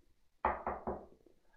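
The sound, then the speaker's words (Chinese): A neighbour knocks three times on an apartment door near midnight, firm knocks in quick, even succession, each a dull thud that rings out briefly, with no voices around them. “临近十二点，隔壁呢终于受不住了，过来敲门。”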